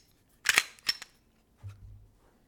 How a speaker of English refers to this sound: First step, clear your Glock Take the mag out. Make sure no bullets are in the chamber. Clear it multiple times. Safety first.